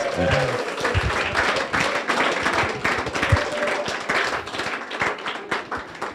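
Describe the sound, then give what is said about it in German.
An audience breaks into steady, dense applause for a couple on their wedding anniversary, many hands clapping at once for several seconds, with a few voices murmuring underneath. “Gebt ihnen mal einen Applaus.”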